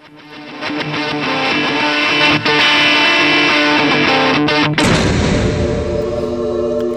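A loud, distorted electric guitar rings out for several seconds, then a heavy door slam thuds, and a full choir takes over, singing on to the end.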